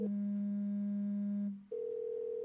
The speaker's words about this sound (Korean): 받을지 받지 않을지 두근거리며 기다리고 있던 찰나 방 안에서 진동 소리가 들려왔다. 뭐야? 네 거야?